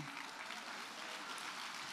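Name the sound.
audience clapping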